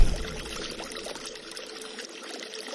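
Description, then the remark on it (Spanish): Water of a stream splashing and tumbling over stones in small cascades, a steady rush with flickering splashes throughout and no voices. “Escucho el sonido del agua al chocar entre piedras y caer en cascadas Las gotas salpican mi piel ardiente y me llenan de placer.”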